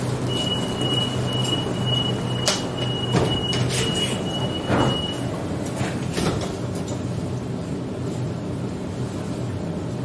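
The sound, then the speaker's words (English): Train doors slide shut amid a steady low rumble of a carriage interior, with a high whine and a few clunks and thuds as the doors close, on a train service stopping at Wynyard, Circular Quay and Central towards Bankstown; no talking. “Doors closing. Please stand clear.”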